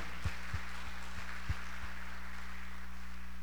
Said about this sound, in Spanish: Aunque Dios esté a tu lado, dáselo al Señor si se lo vas a dar fuerte el aplauso.